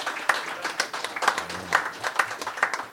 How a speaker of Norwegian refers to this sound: Applaus.